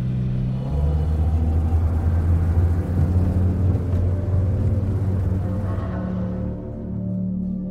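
A car engine rumbles steadily and loudly, its low hum holding for several seconds before easing down as the vehicle slows and settles to a stop at a store, with no voices.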